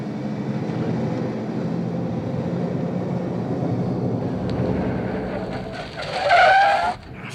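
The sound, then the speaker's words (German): A car engine roars steadily at high speed during a chase, loud, then tires squeal sharply in a brief high-pitched skid near the end as the vehicle swerves. “Ja, von Höchstgeschwindigkeit scheint dieser Bursche noch nichts gehört zu haben.”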